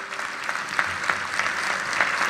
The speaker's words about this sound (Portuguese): Podemos dar uma salva de palmas também a este ministério incrível.